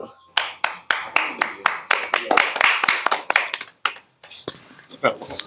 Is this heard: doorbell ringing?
no